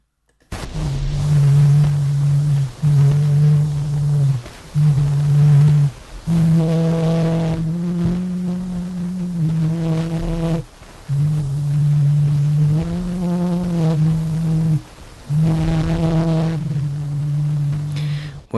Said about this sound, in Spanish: Bueno, pues esto precisamente es la primera, el primer registro del que se tiene constancia en la historia y es una canción popular que se llama O'Clair de la lune